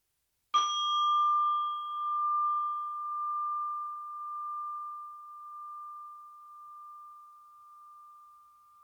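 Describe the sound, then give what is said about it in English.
A meditation bell is struck once and its clear, pure tone rings on for several seconds, slowly fading with a gentle wavering shimmer in otherwise complete silence. “And I will ring the bell to invite you to concentrate on yourself as well as on your breathing.”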